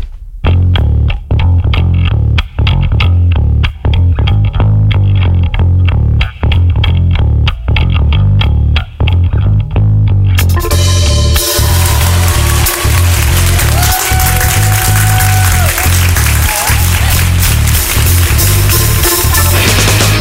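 Loud rock music: steady pounding drums and a heavy, distorted low end, then a wall of distorted guitars crashes in halfway through, making the sound dense and bright. No voices are heard.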